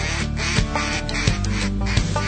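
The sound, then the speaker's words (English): A loud run of duck quacks, a high-ball call blown on a duck call as ducks come in, sounding as a rapid, insistent series of nasal, honking notes that repeat steadily without any talking. “Here come the ducks, hit the high baller.”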